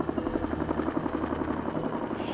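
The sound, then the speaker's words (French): A gendarmerie helicopter flies overhead, searching the area for a vehicle at the bottom of a ravine, its rotor blades thumping in a fast, steady chop over a constant engine drone. The sound stays fairly loud and even throughout. “Les gendarmes survolent la zone à la recherche du véhicule au fond d'un ravin.”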